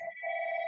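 A realtor's telephone rings with a steady, sustained electronic two-tone chirp that holds evenly for under a second, clear, with no voices over it.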